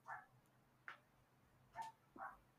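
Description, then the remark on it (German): A dog barks several times, four short yaps spread unevenly, faint against a quiet background with no talking. “Was bellt denn da?”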